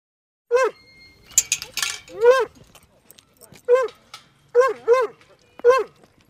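A dog at a dog park barks in a string of short, high, whiny yelps, about six in irregular bursts, with a brief metallic jingle and clatter early on and faint background noise between.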